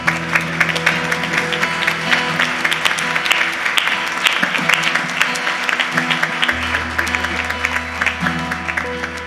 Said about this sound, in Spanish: Den un aplauso al Señor, se lo merece el Señor.